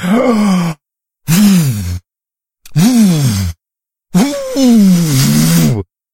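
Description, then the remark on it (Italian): A voice imitates a wolf filling its lungs with air and blowing even harder: four long, strained, breathy huffs with a groaning tone, separated by short pauses, loud, the last the longest. “Allora il lupo si arrabbiò, riempì i suoi polmoni con quanta più aria poté e soffiò ancora più forte.”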